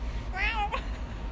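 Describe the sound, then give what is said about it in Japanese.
A person's voice imitates a cat's meow to try to lure a cat, one short drawn-out mewing call with a rising then falling pitch, followed by a brief trailing vocal sound, fairly clear against a quiet background. “そうやって猫の声真似で誘ってみるとそうですね猫語じゃないと伝わらないから”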